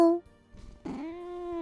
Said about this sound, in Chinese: 咖啡店的猫咪则有两个名字，老板娘叫它咪咪，老板呢却叫它白丸。但是呢，这只猫咪很聪明啊，不管你叫哪一个名字，它都会回应一声喵。